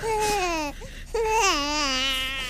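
A baby wails in two long, strained cries separated by a brief catch of breath, close and loud, with a high wavering pitch that rises and falls through each cry.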